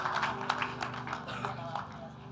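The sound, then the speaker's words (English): Scattered clapping from an audience during a sermon, applauding the preacher: a quick irregular patter of sharp hand claps mixed with a murmur of voices, steady and moderately loud for a couple of seconds. “You all need to clap for me, though.”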